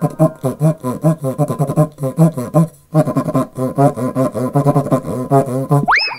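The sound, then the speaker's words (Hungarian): A köcsögduda friction drum played in a fast, steady rhythm of low, buzzy grunting pulses with brief pauses, loud and alone, ending on a short high squeal. “A köcsög duda kiváló szórakozás, akár baráti összejöveteleken is.”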